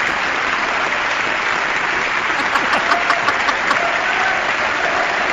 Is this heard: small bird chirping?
no